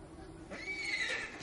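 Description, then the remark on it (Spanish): A horse in a stable neighs once, a bright wavering whinny rising and falling over about a second, against a low steady background hum. “Eric escucha y va hacia las cuadras.”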